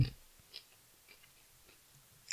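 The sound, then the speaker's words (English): Quiet chewing of kimchi with a few soft, wet crunches spaced apart over a hushed background, and a sharper crisp bite near the end. No one speaks. “They are chewing.”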